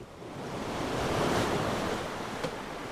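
Steady rush of ocean waves swells and recedes around a lone sailboat in the middle of the sea, with wind noise brushing the microphone and a brief splash or knock near the end, no voices.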